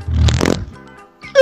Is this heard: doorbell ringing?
no